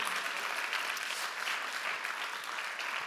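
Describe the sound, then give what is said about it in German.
A crowd applauds steadily, a dense, even wash of many hands clapping at once with no pauses, holding a constant level throughout; the applause is given to God for what he is doing among them. “Komm mal, lasst uns Gott mal einen Applaus geben für das, was er tut in unserer Mitte.”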